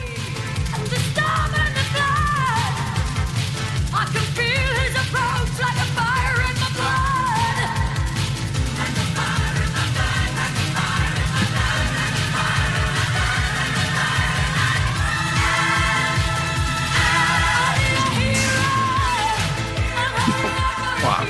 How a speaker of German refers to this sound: dann möchte ich euch nun alle bitten, auf die Drums zu achten, die schon mächtig anfangen in den Songs